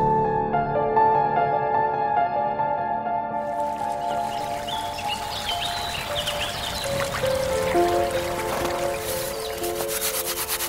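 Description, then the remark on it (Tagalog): Water runs and trickles steadily in a flowing stream in a village in Bicol, where women do their laundry, a continuous babble with splashy dribbles, while soft sustained musical tones hum underneath. “Palagi kaming nagkwekwentuhan habang naglalaba sa batis.”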